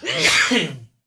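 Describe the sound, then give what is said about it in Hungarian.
A single loud sneeze, a short voiced burst with a harsh, airy blast that ends abruptly after less than a second, with no talking. “Egészségedre. Köszönöm.”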